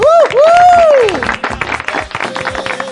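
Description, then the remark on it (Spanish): An audience applauds prize winners at a giveaway for about three seconds, opening with loud rising and falling whoops and cheers that fade into a dense patter of hand claps and scattered voices. “Nunca tenemos un hombre ganador, entonces hay que aplaudir más.”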